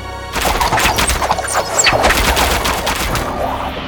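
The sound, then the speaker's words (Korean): A volley of arrows shot by archers firing all at once in a battle: many sharp, overlapping snaps and whooshes pour out in a loud, dense, continuous clatter for several seconds, with no voices. “자, 공수들은 일제히 발을 쏴라.”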